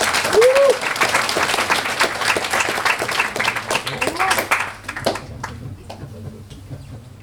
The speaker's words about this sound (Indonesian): Sepertinya sudah tidak sabar, marilah kita sambut pertunjukan dari MES 56, kita berikan tepuk tangan yang meriah.